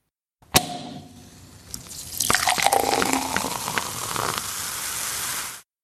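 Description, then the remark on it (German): A single sharp champagne cork pop rings out, followed moments later by a steady fizzing, gurgling pour of sparkling wine that continues for several seconds, fairly loud, with no voices. “Oh ja, ich habe die Sektkorken knallen gehört.”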